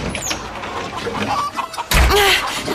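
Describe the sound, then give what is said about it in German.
A door to the chickens' enclosure is swung open too forcefully with a sudden loud thud, and the chickens burst into startled squawking and clucking right after, on top of a busy, rustling background. “Das Knallen der Tür hat die Hühner aufgescheucht.”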